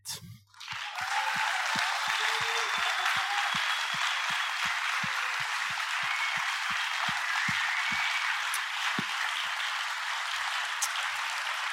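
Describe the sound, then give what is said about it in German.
A large church audience in Halle 5 of the GVC Fraufeld breaks into loud, sustained applause to accompany the pastor onto the stage, holding steady for about eleven seconds, with a regular low thumping pulse running beneath it for most of that time before fading out. “Und wir geben jetzt einmal einen ganz, einen grossen Applaus, so einen grossen hören, wie ihr einfach nur könnt, dass der”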